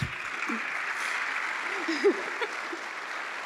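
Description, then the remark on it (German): Steady, dense audience applause fills the whole stretch, a continuous crackle of many hands clapping at even loudness, with faint voices and a brief louder call rising partway through, as two professors are called onto the stage. “Ja, ein bisschen Applaus, bitte.”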